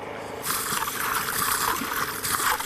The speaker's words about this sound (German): Und zwar dieser kleine Hahn hier, wenn man den auf so stellt, läuft das Wasser.